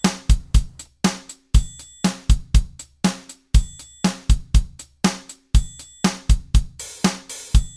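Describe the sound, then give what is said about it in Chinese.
A triangle rings out in bright, sustained, high-pitched strikes roughly every two seconds, layered over a steady repeating jazz drum kit beat with punchy kick thumps and crisp hits. “比如说接下来我们来加上一个声音，这个是叫做呃三角铁。”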